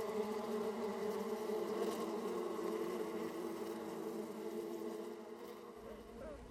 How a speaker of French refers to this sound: le nuage de l'essaim s'envole dans le ciel, flottant de ci de là, avec la reine invisible en son centre avant de se poser en formant une grappe dorée sur la branche d'un arbre proche du domicile qu'il vient d'abandonner.